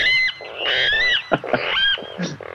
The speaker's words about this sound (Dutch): Wat is dit? De waterral. De waterral. Ik had zelfs nog nooit van de waterral gehoord. En toch is hij nu genomineerd als vogel van het jaar.